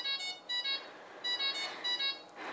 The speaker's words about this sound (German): Ja, das Piepen ist jetzt mal zu Ende hier.